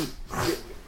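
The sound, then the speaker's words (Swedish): A single quick sneeze, a sharp breathy burst that rises and fades within a second, with no talking around it. “Prosit.”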